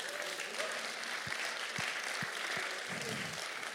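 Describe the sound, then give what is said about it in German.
A crowd breaks into steady applause, a dense wash of many hands clapping at once, fairly loud and sustained throughout, with a few low thumps underneath. “Das ist nicht mal ein Applaus wert.”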